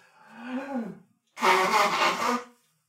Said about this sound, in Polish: I teraz muszę się wysmarkać, przepraszam. Już się odsuwam się. Odsuwam się na w miarę bezpieczną odległość, ale wiem, że to nigdy nie jest bezpieczna odległość, bo smarkam niezwykle głośno.